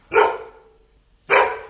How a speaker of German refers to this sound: Das war nicht Ella, das war Summer, der Hund der Nachbarn.